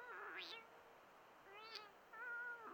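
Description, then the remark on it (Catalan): A small white-muzzled kitten, half hidden high in a large acacia tree, meows insistently close by: three drawn-out, rising cries in quick succession, each bright and harmonic, with no one talking. “És un miol, insistent i molt pròxim”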